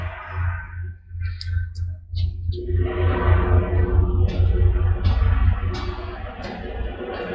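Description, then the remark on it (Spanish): A helicopter passes overhead, its deep throbbing rotor growing louder and staying heavy, with a few faint bird chirps above the roar. “Ah, no, es un helicóptero. Suena duro.”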